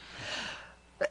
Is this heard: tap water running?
no